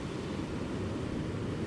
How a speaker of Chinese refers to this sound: 今天海浪算很大。